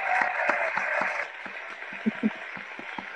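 An applause sound effect played from a button: a short burst of clapping and cheering, dense and crackly at first, then thinning into scattered claps and a few soft thuds before fading out.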